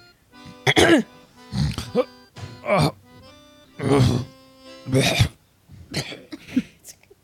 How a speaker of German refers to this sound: Ich räuspere mich.